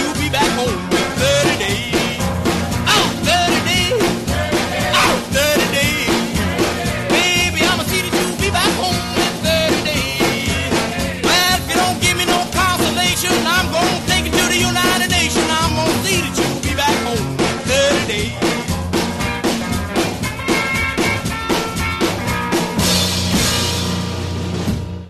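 An upbeat rock and roll song plays loudly and continuously on a broadcast, with driving guitar, steady drums and a singing voice, ending with a brief fade.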